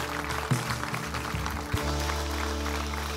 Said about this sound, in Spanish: Vamos, dale un fuerte aplauso al Señor.